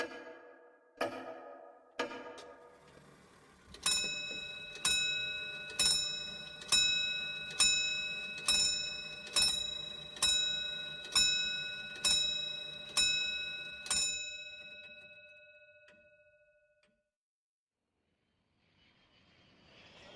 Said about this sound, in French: Telle une réponse venue du néant, l'horloge résonna plusieurs coups de gong annonçant la nouvelle heure.